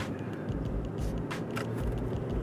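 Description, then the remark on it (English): Steady road rumble from a car on the move through traffic, a continuous low engine and tire drone with brief hissing swells as other traffic seems to pass, no voices. “See if I can make it through this traffic.”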